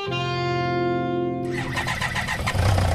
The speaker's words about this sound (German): Die alte BMW mit Beiwagen von Christa und Dieter Wolf aus Elsdorf springt an.